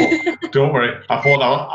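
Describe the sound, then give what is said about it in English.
A short, bright notification ping from a phone set up as a camera chimes once beneath continuous conversation, partly masked by a person talking and laughing. “Apologies for the pinging.”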